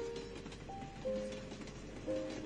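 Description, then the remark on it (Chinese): An old green-painted passenger train rolls along the rails with a steady, dense rumble, while thin, high metallic squeals flare up briefly a few times over the noise. No one speaks. “窗外的风吹来了夏天的声音，那是轻描淡写的虫鸣，飞机划破天空的声音，以及绿皮火车摩擦过的铁轨。”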